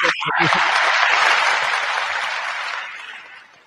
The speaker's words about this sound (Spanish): Yo creería que sería bueno que usted le diera un aplauso a esos grandes y que la gente que nos está viendo, un aplauso para unas palabras que son muy sabias y abren ese, destapan ese.